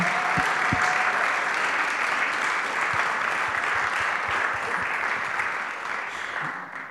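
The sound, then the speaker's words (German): An audience breaks into sustained applause for everyone who serves on the teams, a dense steady wash of many hands clapping at full volume for several seconds before it begins to thin out slightly at the end. “Lass uns ihnen einen Applaus geben.”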